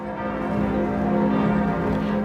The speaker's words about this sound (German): Die Glocken trugen die Botschaft hinaus.